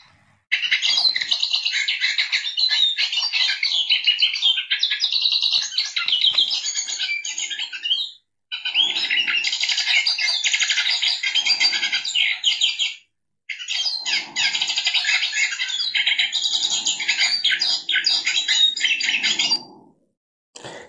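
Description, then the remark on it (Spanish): Hooded siskin (cabecita negra) song: a long, rapid, twittering stream of high chirps and trills, loud, in three extended bursts with short pauses between them, and no voices. “Estamos escuchando el Cabecita Negra.”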